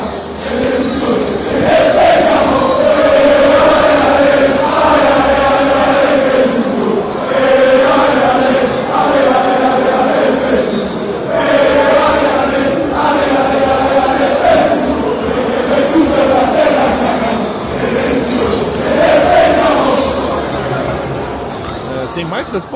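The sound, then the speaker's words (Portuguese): A large crowd of football supporters chants the stadium song "O Filho de Vesúvio" ("Ale, ale, ale, Vesúvio") in unison, a taunt aimed at Roma and Lazio fans. It is loud and sustained, with rhythmic rising phrases repeating over a dense roar of massed voices. “Se chama O Filho de Vesúvio, e o texto. Vamos ouvir então agora.”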